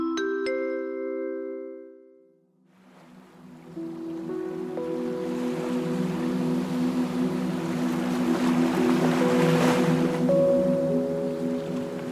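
Water washes and laps steadily around a boat on Halong Bay in northeast Vietnam over a low, continuous engine drone, following a brief sustained tonal sound at the start; no one speaks.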